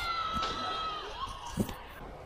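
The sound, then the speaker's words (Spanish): Students shout and yell outdoors during a street protest march in Chile, amid a busy, noisy street background, with a few sustained cries rising over the general din before a brief thump. “Escuchamos gritos de parte de los estudiantes totalmente justificados, mientras otra marcha más termina como termina la mayoría, por culpa de Carabineros de Chile, hay que decirlo.”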